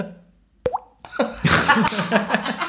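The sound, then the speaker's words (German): A single crisp mouth plop made by flicking the cheek and moving the tongue, a voice imitating the last water drop falling, with a quick rising pitch, followed by a soft click and then laughter and chatter. “Für alle, die wissen wollen, wie das geht, man schnipst sich gegen die Wange und macht eine Zungenbewegung.”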